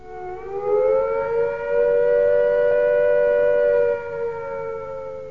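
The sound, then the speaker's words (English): A loud air raid attack warning siren, signalling that an attack is imminent, wails steadily, its rising and falling tone sustained with strong harmonics throughout, with no voices present. “If attack is imminent, you will hear the attack sound like this.”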